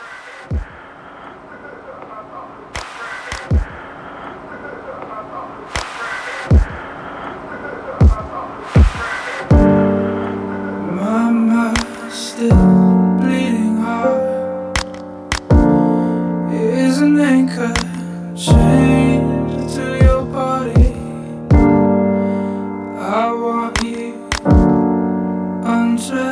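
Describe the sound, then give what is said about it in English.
A song opens with sparse, sharp percussive hits over a quiet bed, then around ten seconds in sustained tones and steady beats enter, carrying on as loud, full music to the end. “we'll cut away, listen to that track, and uh, we'll come back and, uh, and talk about it.”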